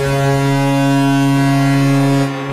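A loud, deep NHL ice hockey goal horn blares continuously, a steady low-pitched tone with strong harmonics that holds for over two seconds before cutting off abruptly near the end.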